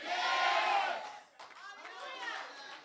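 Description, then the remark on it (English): A large audience jumps to its feet and shouts "Yes!" together in a loud, sustained burst of voices, then fades into scattered excited calls and cheers from the crowd. “Somebody jump up on your feet and shout, Yes!”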